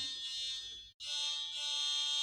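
A steady, piercing electronic tone, like an alarm beep, washed in heavy reverb. It drones loudly, cuts out for a split second, then resumes at the same level. No voices.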